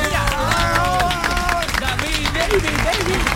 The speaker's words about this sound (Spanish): mira, mira, cómo, mira cómo fluye el aplauso sin que nadie lo vea.